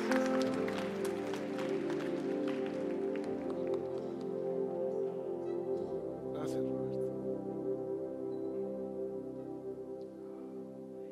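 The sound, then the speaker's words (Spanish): A crowd claps together over sustained keyboard or organ chords; the dense applause is strongest early, then thins out and fades while the music keeps playing. “¿Qué tal si damos un fuerte aplauso a los lanzados de hoy?”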